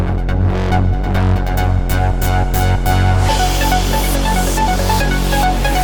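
Loud electronic tracker music from a demo of a Dirtywave M8 handheld tracker synthesizer: a punchy, steady drum pattern under a deep bass and bright, sustained synth melody lines, playing alone without any voices.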